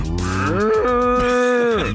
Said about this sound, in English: comes from the low sound that sounds similar to a cow's moo.